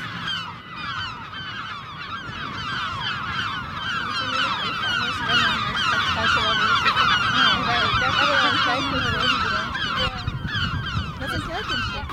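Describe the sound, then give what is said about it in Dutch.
A big flock of about fifty gulls circles and calls nonstop overhead, dozens of loud, overlapping squawks and cries forming a dense, chaotic chorus that keeps swelling for the whole stretch. “Dus uh, hoe dichterbij we komen, hoe eh, wilder de meeuwen worden.”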